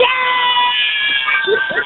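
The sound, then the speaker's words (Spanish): A woman's voice imitates a screeching cat, a loud, strained, high-pitched yowl that holds steadily for about two seconds. “pero sí habla como una gata, ¿eh?”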